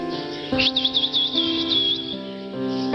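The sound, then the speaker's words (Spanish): A man whistles in a high, warbling run of quick rising and falling notes, trilling for about a second and a half over a steady, sustained musical drone, with no one speaking. “El hombre sonrió y silbó.”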